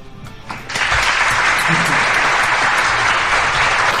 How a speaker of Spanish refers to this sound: aplausos